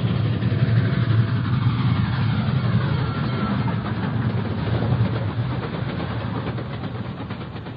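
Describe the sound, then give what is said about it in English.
A heavy, continuous roar of an approaching train, dense and loud with a deep low-end churn, easing off slightly toward the end. No one speaks. “could make out an approaching roar, another train heading right for me.”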